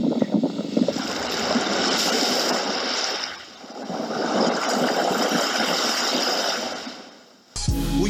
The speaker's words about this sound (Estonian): kuid midagi on äh, merelainetes, mis rahustab mu meeleolu väga palju. ja toob rahu hinge, meeleollu. hea on kuulata lihtsalt laineid